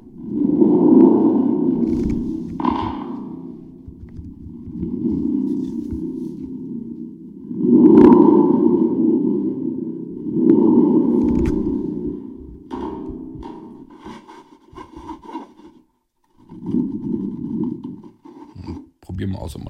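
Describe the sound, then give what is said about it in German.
A spring drum makes a thunder effect: a series of deep, rumbling booms with a metallic, reverberant shimmer, swelling and fading in repeated bursts, loud. “Damit kann man diesen Donner dann erzeugen.”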